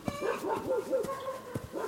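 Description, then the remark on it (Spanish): A dog barks and yips repeatedly in quick, excited bursts, moderately loud, with a whining edge between barks and no one speaking. “Perro, quítate de ahí.”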